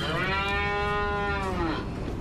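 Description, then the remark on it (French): A dairy cow lets out a single long, drawn-out moo, its pitch sagging slightly at the end, over a steady rumble of barn noise. It is at a large dairy farm in the Middle East, where cows walk in to a rotary milking parlour for milking. “Alors les vaches arrivent par ici, elles avancent toutes seules”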